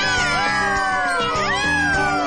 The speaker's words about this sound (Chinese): 喵喵，我想三只小猫咪也很喜欢呢。喵喵喵，耶！